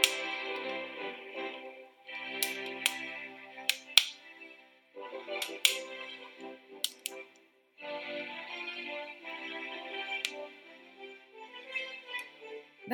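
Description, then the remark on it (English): A crackling fireplace fire from a streamed fireplace video played at home, with a steady soft hiss broken by scattered sharp pops and snaps at irregular intervals, no voices present. “the crackling fireplace for your home on Netflix has been a, a real touchstone for me”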